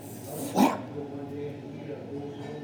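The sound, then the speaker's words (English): A voice imitates a loud slam, like a big rubber wheel flap slammed hard on the ground, with one sharp, bark-like burst, followed by a low, steady background murmur. “I felt like someone took one of those and, and I'm raising my hands up, holding it, and slamming it on the ground as hard as I can.”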